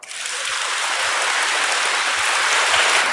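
A crowd breaks into steady applause, a dense, even wash of many hands clapping that swells quickly and holds at full volume for about three seconds, with no voices heard.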